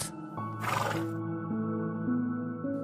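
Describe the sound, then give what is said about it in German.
A black stallion neighs loudly, one long whinny that starts with a rough, breathy burst and then carries on as a wavering, shifting tone for a few seconds, with no other sounds. It stands in a niche at the back of a circular space enclosed by high rocks. “Es ist ein schwarzer Hengst, der dort steht.”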